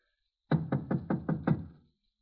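Six quick, firm knocks on the wooden door of number 205 in an even rhythm, fairly loud, with a short resonant tail after the last rap and no voices.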